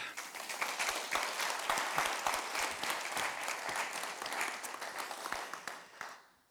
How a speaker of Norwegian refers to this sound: Til en kraftfull applaus.